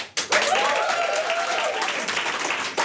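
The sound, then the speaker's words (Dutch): A live audience applauds steadily, a dense wash of clapping hands from start to finish, with faint cheering or a voice rising briefly above the noise, at the Nespresso Nederland headquarters. “Ja, en je hoort het. Eh, wij zijn niet alleen vandaag.”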